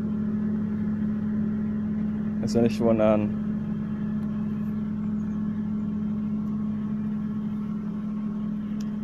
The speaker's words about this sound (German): Das, was ihr jetzt gerade im Hintergrund hört, das ist ein Trecker.